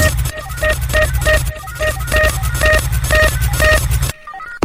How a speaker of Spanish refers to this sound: Y estamos hablando de esta canción llamada …